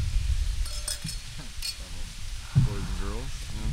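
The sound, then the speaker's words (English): Wind blows outside as a steady, low buffeting rumble that fills the whole recording, with brief clinks and a muffled voice rising over it near the end. “Yeah, and if you hear that background noise, that is the wind.”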